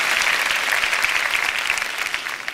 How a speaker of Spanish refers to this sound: Amén. Del otro fuerte aplauso al Señor.